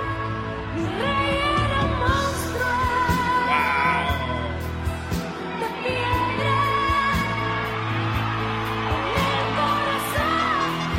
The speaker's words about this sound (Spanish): todos aplaudiéndole ahí. Es que canta con un sentimiento, es lo que me gusta. Lindo.